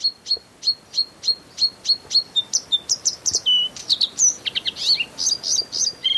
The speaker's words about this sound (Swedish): du har spenderat ganska många nattliga timmar med skönsång från ännu en invandrare. Ja, det handlar naturligtvis om blåhaken.